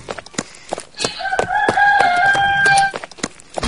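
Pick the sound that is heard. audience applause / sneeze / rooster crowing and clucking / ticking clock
rooster crowing and clucking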